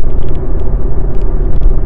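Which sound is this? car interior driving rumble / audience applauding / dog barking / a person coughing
car interior driving rumble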